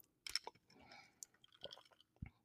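sipping coffee

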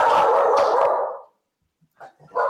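dogs barking

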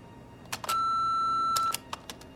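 answering machine beep

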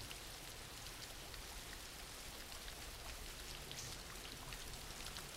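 background rain

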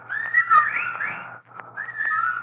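birds calling outside

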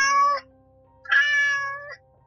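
cat meowing

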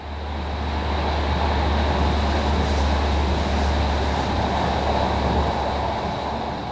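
train running on rails

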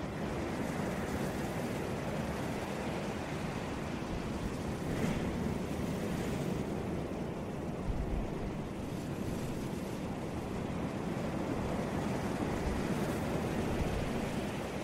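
ocean waves

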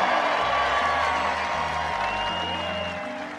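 rally crowd cheering

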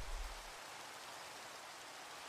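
rain falling

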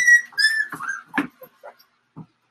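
dog whining

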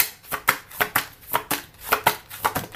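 shuffling tarot cards

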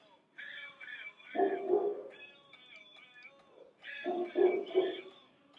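dog barking

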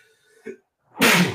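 sneeze

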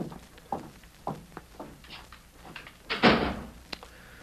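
door being shut

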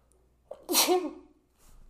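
sneeze

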